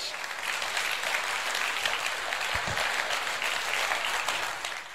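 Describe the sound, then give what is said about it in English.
A church audience at a Sunday service claps steadily in praise to the Lord, a dense, sustained wash of many hands for several seconds before tapering slightly at the end. “Give the Lord a great hand clap of praise.”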